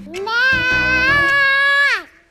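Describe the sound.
A child's voice imitates a lamb's bleat, drawing out a single high, nasal "baa" for about two seconds, with a quavering wobble in the middle before the pitch slides down and fades.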